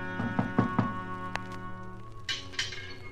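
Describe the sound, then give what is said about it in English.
Four quick, evenly spaced, firm knocks on the door of a house, followed by a pause with a soft musical hum and faint rustling in the background. “No one answered the door, but I heard someone in the back.”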